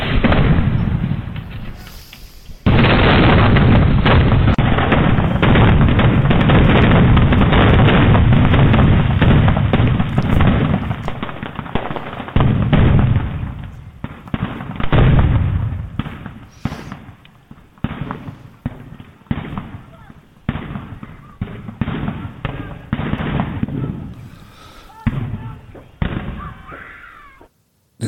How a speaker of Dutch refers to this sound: vuurwerk